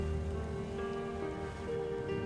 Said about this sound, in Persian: زیر حجوم بی امان باران کنار ساحل قدم میزنیم